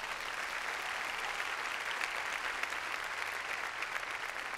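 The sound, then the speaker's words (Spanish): An audience claps their hands in sustained, dense applause as an offering of praise, a steady wash of overlapping claps holding an even loudness throughout with no voices standing out. “Dele ofrenda de palmas fuerte, hermano.”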